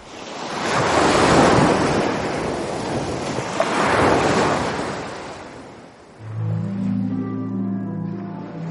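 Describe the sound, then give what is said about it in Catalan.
Sea waves wash and surge loudly around a ship sailing from Southampton to Barcelona, in two broad swells with a steady windy rush, then a deep sustained horn-like tone rises beneath the continuing surf near the end. “Recolzat a la barana del vaixell que em portava a Barcelona des de Southampton”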